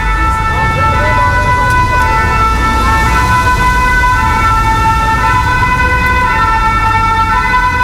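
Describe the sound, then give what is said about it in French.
Dense city traffic rumbles on the cours Gambetta, with cars everywhere and taxis in the bike lanes, while car horns blare continuously in long, overlapping tones, loud and unbroken for the whole stretch, with faint voices mixed into the street noise. “On est sur le cours Gambetta. Des voitures un peu partout, des taxis sur les pistes cyclables.”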